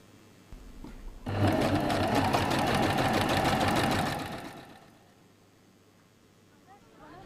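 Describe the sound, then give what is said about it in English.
A sewing machine in the Ozra tailoring workshop of the water school runs in a steady, fast mechanical rattle for about three seconds, loud and continuous, then stops, leaving faint background noise and a soft voice. The workshop makes uniforms and aprons from the school's textiles. “Later, these textiles are processed by the tailoring workshop of Ozra to make the uniforms and aprons of the water school, but also other products to be sold on the market of the water school.”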